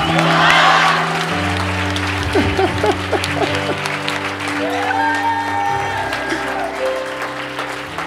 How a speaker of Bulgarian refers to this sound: Хайде хора, нека да аплодираме точно сега.